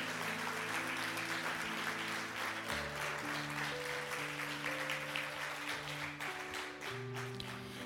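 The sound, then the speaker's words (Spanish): An audience applauds to God at an afternoon church service, a dense, steady wash of clapping that holds for several seconds without a break, while sustained keyboard chords shift underneath. “Dele un aplauso a Dios en esta tarde.”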